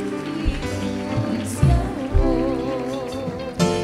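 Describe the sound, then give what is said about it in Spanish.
A large audience applauds as names are called out, a dense and steady patter of many hands clapping over a few seconds, with music playing underneath and a few louder thumps. “Con un fuerte aplauso”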